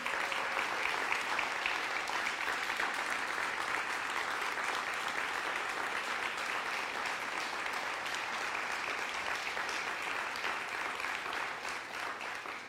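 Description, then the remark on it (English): Sustained applause from a large audience for the veterans standing among them on Veterans Weekend, a dense, even crackle of many hands clapping that holds steady for about twelve seconds before starting to thin out at the end. No one speaks over it. “We just want to thank you and applaud you.”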